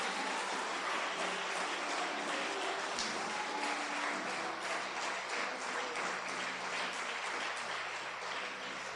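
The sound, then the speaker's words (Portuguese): A church audience claps steadily for several seconds, applauding the Lord during a sermon, a dense, continuous patter of many hands at moderate loudness with no voices over it. “Pode aplaudir o Senhor.”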